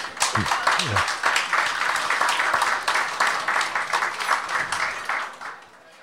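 An audience breaks into sustained applause, dense rapid clapping at steady loudness for several seconds, with a few whoops or cheers early on, before it thins and fades out.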